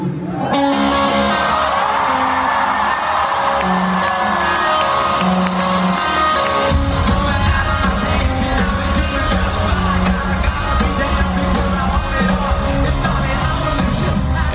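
A huge crowd cheers, whoops and yells continuously, a dense roar that swells louder partway through as deep rumbling joins in, at a live concert in the Mercedes-Benz Arena in Berlin, a huge, fairly well-filled concert arena.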